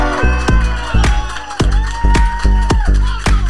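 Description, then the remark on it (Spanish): An audience at a comedy show in Barcelona cheers and applauds loudly as a comedian is welcomed on stage, over a pounding music track, its steady beat hitting about twice a second beneath the continuous crowd roar. No one speaks. “Por favor, quiero que recibáis con un fortísimo aplauso aquí en Barcelona”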